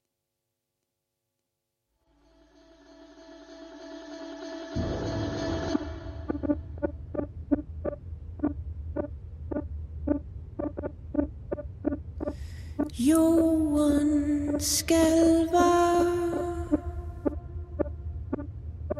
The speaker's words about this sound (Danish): vi skal snakke om en sang, der hedder …. Ja. Og jeg synes sådan set bare, at vi skal høre den